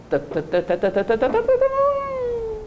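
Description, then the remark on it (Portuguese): A voice mimics a motorcycle starting as its key is turned: a quick run of rhythmic sputtering pulses, then a sustained buzzing tone that holds and slowly trails off, fairly loud. “Imaginem vocês o barulho de uma moto que vira a chave. Ela começa.”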